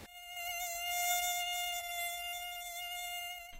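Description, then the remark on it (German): A mosquito whines steadily for a few seconds, a thin high-pitched buzz that swells slightly and fades again, with no voices present. “Immer wenn es warm ist, kommen die Mücken in Scharen.”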